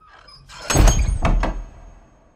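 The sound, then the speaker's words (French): A door in a Harry Potter story is flung open violently by Lucius Malfoy with a loud crash, followed quickly by two sharp knocks as it bangs against the wall and rebounds. No one speaks. “Alors que Harry s'apprête à sortir, la porte s'ouvre violemment et rebondit sur le mur.”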